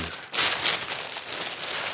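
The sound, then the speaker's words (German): Crinkly plastic rustling, a plastic bag containing a plush toy being pulled open with a burst of crackling that continues steadily for a couple of seconds, no voices. “Eine Plastiktüte? Was ist denn drin? Das hier ist drin.”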